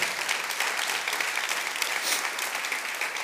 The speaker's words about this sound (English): I, I like the way the, yeah, if you want to clap, go ahead. That's, that's good.